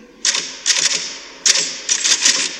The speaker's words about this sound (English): Whenever I'm in here, you hear me typing,